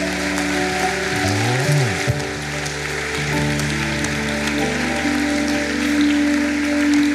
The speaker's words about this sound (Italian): A Lui tutto l'onore e la gloria. Facciamogli un applauso meraviglioso.